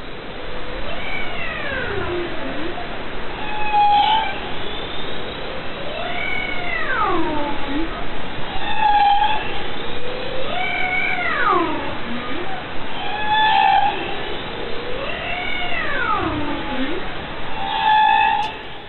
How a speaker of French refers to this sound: je propose maintenant qu'on écoute euh, ce, euh, ce, chant de, baleine. Je sais pas si j'ai une baleine bleue, mais euh, là on peut écouter la baleine boréale en Arctique.